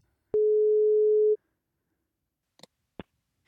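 telephone ringing tone

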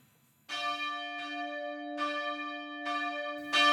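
church bells ringing

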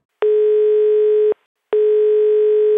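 telephone ringing tone

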